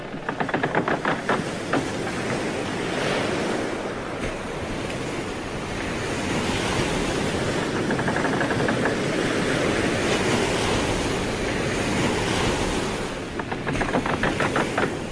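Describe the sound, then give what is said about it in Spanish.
Steady rush of water and lapping waves as a boat sails gently over the sea toward islands in a cool breeze, with a constant breezy hiss and soft swells rising and falling; no voices. “Siente la brisa fresca y escucha lo suave que se mueve el barco.”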